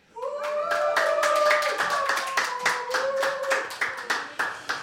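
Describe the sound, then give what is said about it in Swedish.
A small studio audience applauds for several seconds at a live broadcast of community radio station Radio Total Normal (101.1 MHz) from Fountain House's premises at Götgatsbacke 38, Stockholm: sharp separate claps forming a lively patter that thins toward the end, with a faint voice or two audible underneath. “Vi har en ännu än så länge liten eh, naggande god publik här. Det kommer flera, de droppar in efterhand. Får vi höra, ni som är här, hur låter ni?”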